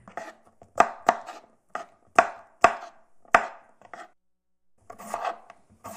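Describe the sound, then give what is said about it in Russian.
A knife chops red and green bell peppers into fairly large pieces of about 2 cm on a board, in quick, uneven strokes, each one a sharp crisp knock with a bright rasp, followed by a pause and a softer burst of cutting. “Нарезать тем же способом”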